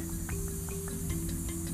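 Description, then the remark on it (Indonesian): A person makes a steady, breathy hiss in imitation of a snake, sustained for a couple of seconds at a fairly soft level, with no talking alongside it. “Jangan mendesis. Ah, ada kayak ular.”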